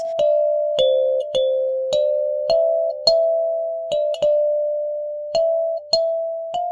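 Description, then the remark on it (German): A soft electric keyboard, picked up electronically like a Rhodes, plays a slow sequence of single notes, each with a bright, kalimba-like bell attack and a warm, soft, mellow Rhodes-like sustain, clear with no voices. “der, der Anschlag klingt wie eine Kalimba, also so glockenähnlich.”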